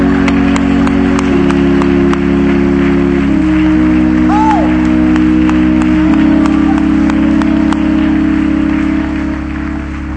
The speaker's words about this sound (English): Please be seated, but clap your hands when you get there. Come on, when you get there, clap your hands unto the Lord.